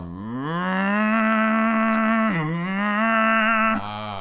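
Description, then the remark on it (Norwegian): A voice imitates a video game car engine revving while driving and shifting gears, a sustained buzzing drone that rises in pitch, drops sharply as if shifting gear, climbs again, then shifts once more, loud. “Så kom det sånn, da, når du liksom kjører og girer og sånn.”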